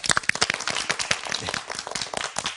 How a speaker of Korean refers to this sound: 그럼 박수로 본격적인 강연 시작하겠습니다.